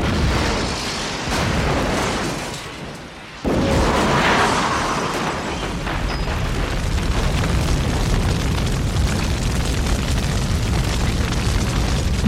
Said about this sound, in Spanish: ¡Boom! Todo saltó por los aires. Una terrible explosión consumió buena parte del hotel, las preciosas salas, los lujosos salones y las enormes cocinas quedaron destrozadas bajo el fuego y el humo.